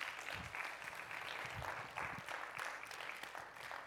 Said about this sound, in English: Give these guys a hand, round of applause.